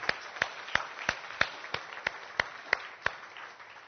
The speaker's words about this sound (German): Und vielleicht können wir denen einfach mal auch einen Applaus geben, dass die spüren, dass sie da sind.